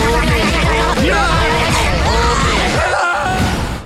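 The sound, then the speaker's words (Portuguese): A man yells loudly and forcefully for several seconds, in connection with the film Trolls World Tour (Trolls Tour Mundial), his strained voice rising and falling in long bursts, dense, with a brief dip near the end. “E normalmente não grita assim, é óbvio.”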